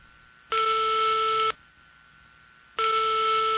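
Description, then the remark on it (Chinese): Two long, loud electronic telephone tones, each about a second, separated by a pause, as a hotline call is connected on a late-night call-in radio show on FM 95.27 UFO Radio; steady multi-pitched buzz with a faint hum underneath. “下面请接通热线电话。”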